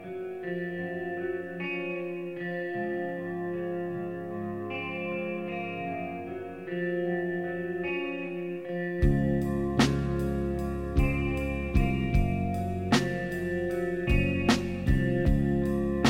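A recorded song plays alone, starting with sustained, reverb-heavy guitar chords before a full band with drums enters around nine seconds, keeping a slow, steady beat at moderate volume.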